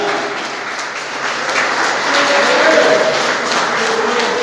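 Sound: loud round of applause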